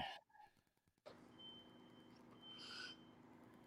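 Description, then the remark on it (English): A fire alarm going off in another house: faint electronic beeping, a steady high tone, heard over a low rumbling background hum. “I hear someone's fucking fire alarm going off, man.”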